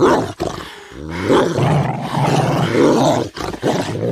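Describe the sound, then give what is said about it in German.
Dogs growl menacingly, baring their fangs as if to attack, a loud, rough snarl that rumbles on for several seconds with brief breaks, deep and throaty, with no one speaking. “Aber als sie sich dem Bett nähern wollte, sprangen sie auf, knurrten bedrohlich und zeigten die blitzenden Reißzähne wie zum Angriff.”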